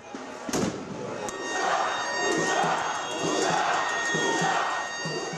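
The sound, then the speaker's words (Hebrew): A large protest crowd chants loudly in the streets of cities in Israel, a dense roar of many voices with a rhythmic pulse, steady shrill tones running through it and a sharp thud near the start. “חודשיים למחאה הנרחבת ברחובות הערים בישראל.”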